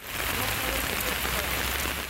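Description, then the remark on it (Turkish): Sudden heavy rain pours down steadily in Bandırma, Balıkesir, Turkey, a dense continuous hiss of drops striking surfaces, loud and unbroken throughout. “Aniden bastıran yağış nedeniyle tıkanan ragarlar belediye ekipleri tarafından temizlendi.”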